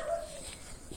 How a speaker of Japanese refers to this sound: 窓のとこで犬が鳴いてた